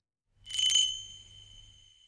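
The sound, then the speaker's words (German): A single small bell on a jester costume rings once with a bright, clear strike, then its high metallic tone hangs and slowly fades, alone with no voices. “Oder wie wird einem warm ums Herz, wenn man statt dem wilden Schellengrambolen mal nur ein einziges Glöckli von einem Ueli hört.”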